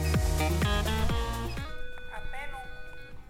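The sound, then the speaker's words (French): An apartment doorbell at a climatologist's home chimes a quick melody of about five bright, ringing notes, fairly loud, then dies away into a quieter background with faint movement. “je viens de sonner chez Jean Jouzel”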